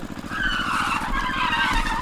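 A car brakes hard, its tires letting out a loud, sustained screeching skid over a low rumbling engine, lasting about two seconds with no voices.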